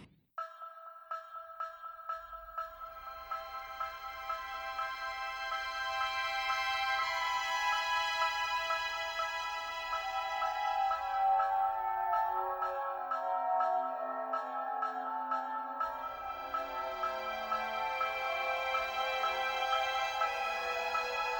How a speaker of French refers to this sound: Ces percussions proviennent d'un gangsa, un métallophone, une sorte de grand xylophone originaire de Bali, dont les lamelles de cuivre ou de fer sont frappées avec des marteaux en bois.